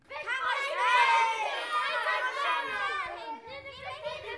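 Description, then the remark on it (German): A group of children talk loudly over one another, all at once, full of ideas, their high voices overlapping into a continuous, excited babble that stays busy throughout. “Mensch, euch hört man bis da oben. So viele Ideen habt ihr. Und? Genau, alles durcheinander.”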